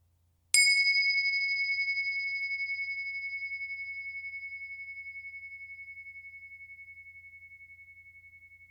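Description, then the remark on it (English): A single meditation bell is struck once, its clear metallic tone ringing out and slowly fading over several seconds with a gentle wavering shimmer. No one speaks. “Just listen to the sound of the bell and see if you can follow the sound from the moment it begins all the way until it dissolves.”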